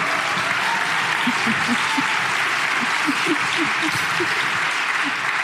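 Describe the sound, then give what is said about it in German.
Sustained audience applause for an outfit, a dense wash of many hands clapping at steady volume throughout, with faint murmurs of voices mixed underneath. “Ich frage mich natürlich, also erstmal würde ich sagen, großen Applaus für dieses Outfit, oder?”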